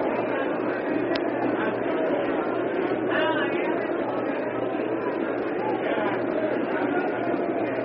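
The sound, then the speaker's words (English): A large, silent and disappointed Chicago baseball crowd murmurs low and steady throughout, a dense wash of indistinct chatter with no cheering or sharp outbursts, in the top of the sixth inning as the game turns toward the Tigers. “It's a rather silent and, and at this moment subdued and disappointed Chicago crowd as the tide of fortune turns very strongly in behalf of the Tigers here in the top of the sixth.”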